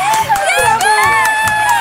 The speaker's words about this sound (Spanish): Del otro lado del círculo, los duendes se apartaron y Santa Claus los duendes lo saludaron con un estallido de gritos y aplausos. ¡Bravo, bravo!